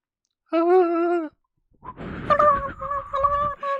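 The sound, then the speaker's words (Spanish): A voice imitates a whistled tune, the way el Guismo whistled: one sustained, wavering note, a short pause, then a breathier melodic phrase of several rising and falling notes, fairly loud and without any words. “Eh, cuando el Billy está dando sus sentones, escucha que un güey está chiflando como chiflaba el guismo.”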